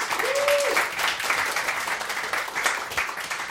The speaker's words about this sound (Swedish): Ja, vad trevligt grabbar att ni är här. Kan vi få en applåd för denna berömda kvartett?